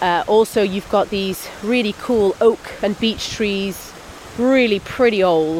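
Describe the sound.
A steady, gushing waterfall rushes continuously in the background, heard while walking across a bridge over it, its broad hiss filling the gaps while someone talks over it.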